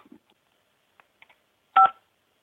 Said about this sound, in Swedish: Gör ditt val med knapparna på din telefon. Mår du dåligt? Tryck 1. Mår du bra? Tryck 2.